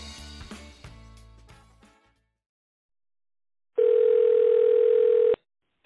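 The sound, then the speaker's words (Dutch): A short piece of music fades out, and after a pause a single steady electronic phone ringing tone of an outgoing call sounds loudly for about a second and a half, then stops. “En dat telefoongesprek ga je nu horen.”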